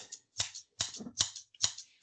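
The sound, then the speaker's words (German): Scissors snip several times in quick succession, each cut a sharp, crisp click with a short rustle, fairly quiet, with no voices. “Moment, hier, Schere.”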